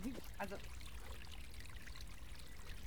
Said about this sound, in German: Da plätschert fröhlich ein Rinnsal.